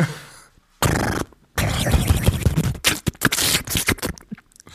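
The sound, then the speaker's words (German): A person mimics a windy slapping sound with their mouth: breathy bursts of airy rushing, then a string of quick irregular slaps and puffs, fairly loud, with no words spoken. “So, ein windiges Klatschgeräusch.”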